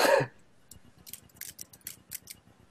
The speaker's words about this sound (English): I'm typing.